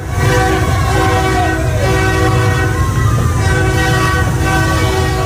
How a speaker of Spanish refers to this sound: Hoy les mando la postal sonora a bordo de un tren inaugural.